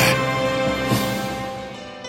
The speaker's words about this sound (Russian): Вы слышите эти чудесные звуки, словно кто-то играет на солнечных лучах и струйках воды – это цимбалы, мои старинные подданные, с которыми всегда весело и радостно на душе.